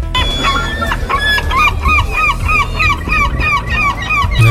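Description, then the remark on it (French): A seagull cries in a fast, steady series of loud, nasal squawks, each call repeating in quick rhythm over a low background rumble, with no voices. “Alors pour ceux qui l'ignorent, hein, le cri de la mouette, c'est ça.”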